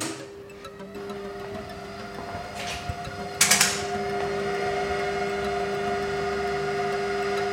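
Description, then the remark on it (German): Remotely controlled electrical contactors snap shut to precharge the system's capacitors with a faint click and then a sharp cluster of loud mechanical clacks, over a steady electrical hum that continues afterward with the whir of fans cooling the power electronics. “Man hört jetzt gleich die Schütze, wie sie zugehen, um eben die Kondensatoren vorzuladen.”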